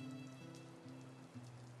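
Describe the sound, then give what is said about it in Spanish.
Light drizzle falls steadily, a soft, continuous hiss of fine drops pattering on a surface, with a low steady hum underneath and no voices. “Pero la llovizna los obligó a meterse a una pequeña pero agradable hostería”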